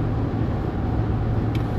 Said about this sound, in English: friggin' 5.7 liter, 7 liter roaring, and I'm gonna blow this guy's doors off too. Frickin' little Ford Bronco. Um, you hear my engine roaring